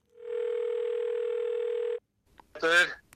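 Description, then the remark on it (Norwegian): A single steady telephone ringing tone lasts almost two seconds as a call is placed to a father, then stops. After a short pause, a voice briefly answers over the line. “Jeg ringte ham etter sending, og det skal vi høre på nå.”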